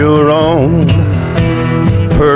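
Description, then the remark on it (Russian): A recorded country cover song plays loud and steady: a male singing voice with wavering, drawn-out notes over strummed guitar, with sharp strums landing every half second or so. “Вот как звучала эта версия”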